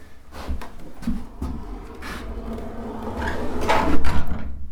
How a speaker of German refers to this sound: Ja, die Tür. Die Tür, die ist auch schon ein bisschen älter.